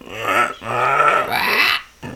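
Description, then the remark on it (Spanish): A person vocally imitates a jaguar's roar with a few rough, throaty grunting bursts in quick succession, fairly loud, ending with a short final grunt. “el rugido del jaguar es muy peculiar. No se parece nada al del león y el tigre.”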